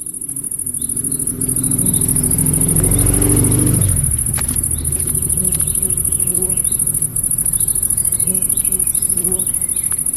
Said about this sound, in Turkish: Motor bir taraftan geldi, diğer tarafa gitti. Arın sesi bir kanalda. Ayak sesleri diğer kanalda. İşte stereo etki böyle bir şey.